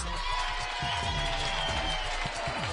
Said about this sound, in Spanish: Aplausos.